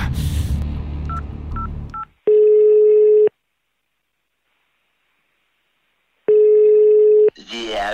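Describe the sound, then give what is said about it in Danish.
Three quick keypad beeps sound over rustling handling noise as a phone number is dialed to call star architect Bjarke Ingels, then two long, steady telephone ringing tones follow, separated by a silent pause, before his automatic answering machine voice starts at the end. “Stik mig telefonen, så!”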